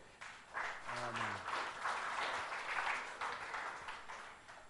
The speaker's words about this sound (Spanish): ¿Quién es ese? Cristo, hermanos. Jesucristo, denle un aplauso a él.